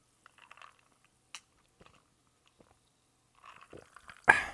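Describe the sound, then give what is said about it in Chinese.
Someone drinks sparkling water as a toast to listeners: sparse faint sips and mouth clicks, then a rising fizzy crackle that ends in a sudden loud hissing burst. No one speaks. “那我们今天在开始之前，一样是用气泡水跟大家干一杯哦，啉一嘴，啉一嘴哦。”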